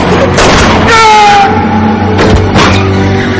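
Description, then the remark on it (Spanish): Several sharp, loud gunshots ring out in quick bursts over the steady roar of a car engine and a brief high screech, intense throughout, as Parcher fires at the driver of a pursuing car that has pulled alongside. “Los perseguidores se colocan en paralelo a Parcher que dispara matando al conductor.”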